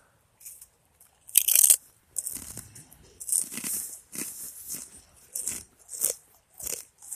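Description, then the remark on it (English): Loud, crisp crunching of crackers being bitten and chewed at a camp, a sharp bite followed by a steady series of brittle, irregular crunches with brief pauses between, no talking. “I got those crackers.”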